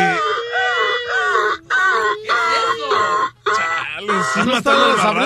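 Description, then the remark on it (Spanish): Someone vocally imitates a fire engine siren with loud, wavering wails that rise and fall in pitch, broken by a few brief pauses for breath. “Era una sirena, carnal, pero es que lo que pasa que...”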